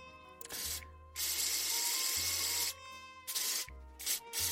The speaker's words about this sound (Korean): 네, 여러분 이거 눈이에요. 눈 스프레이 소리입니다. 네, 제가 뭐 이렇게 코 들여 마시는 소리가 아니고요.